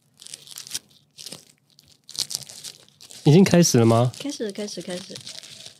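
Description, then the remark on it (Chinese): Bursts of crisp plastic bag crinkling, fairly loud and irregular, fill the first few seconds, then people start talking while faint rustling continues underneath. “这就是塑胶袋的声音。”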